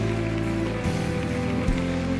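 audience applause

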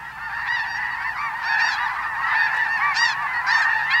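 snow geese honking

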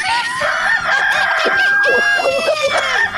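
rooster crowing

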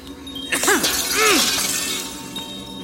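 mirror glass shattering

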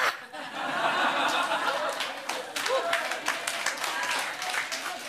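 audience clapping

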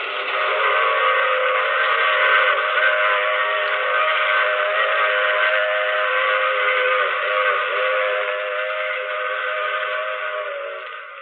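train passing with whistle

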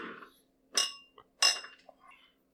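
glasses clinking

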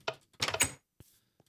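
door closing

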